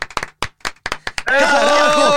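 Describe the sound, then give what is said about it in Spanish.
A quick run of about ten sharp hand claps swells into a loud, dense burst of applause, with voices shouting and cheering over it, as footballer Luis Hernández, 'el Matador', is welcomed onto a show. “¡Aplausos, Luis!”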